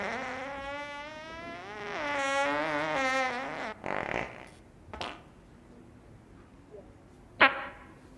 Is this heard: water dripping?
no